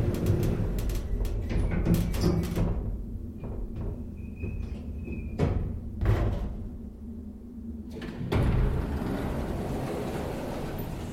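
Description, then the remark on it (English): A service elevator's door slides open onto a dark hallway with a loud rushing scrape near the end, following a stretch of low mechanical rumble, clunks and a faint whine as the car moves down. “door opens to reveal a dark hallway.”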